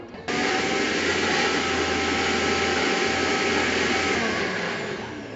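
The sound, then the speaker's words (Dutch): A blender switches on abruptly and runs at a steady, loud whir with a low motor hum, continuing unchanged for several seconds before easing slightly at the end. No voices. “Blender dan niet.”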